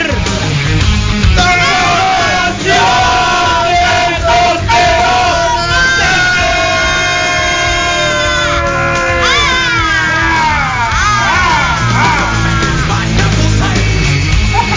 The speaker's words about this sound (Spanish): Ay, Dios mío. Me encanta gritar. Es mi parte favorita.